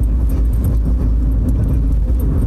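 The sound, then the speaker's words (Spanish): Steady low rumble of a car driving, a continuous road and engine drone that stays loud and even throughout, with faint higher hiss and small clicks on top and no talking. “Estoy manejando, perdón.”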